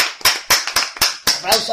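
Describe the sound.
Applause of steady, evenly spaced claps, about seven sharp hand claps in a quick regular rhythm, with a faint voice murmuring underneath near the end.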